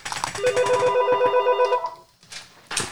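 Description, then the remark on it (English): A telephone rings with a rapid trilling bell for about a second and a half, fairly loud, before cutting off into brief background noise. “I forgot to disconnect the phone so I have to hold on for a second here”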